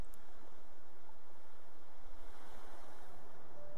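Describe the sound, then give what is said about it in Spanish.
A steady, broad wash of ocean surf fills the scene, the hiss of waves coming and going on a sandy beach heard continuously, with no voices present. “Te invito a que te sientes en la arena para escuchar el ruido de las olas que vienen y van.”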